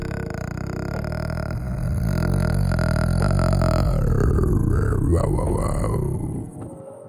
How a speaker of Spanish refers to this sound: Es que, Estaba haciendo lo eh, intrigante. Es que estaba entre un eructo gutural y aparte como de esos camioncitos de que van hacia las carreteras. Y... Eso suena más como un perro.